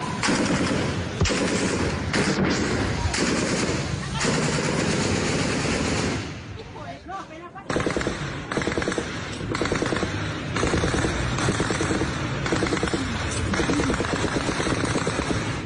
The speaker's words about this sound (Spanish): ese municipio y desde varios puntos dispararon ráfagas de fusil contra la estación de policía. Algunos habitantes de Corinto grabaron con sus teléfonos celulares el ataque que los obligó durante varios minutos a resguardarse en sus propias viviendas.